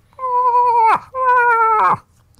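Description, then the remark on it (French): Two drawn-out, nasal moaning calls imitating a cow moose in heat, made at nightfall, each holding a steady pitch before breaking downward at the end, loud with a short pause between them. “Je lâche trois, quatre cales de femelle en chaleur.”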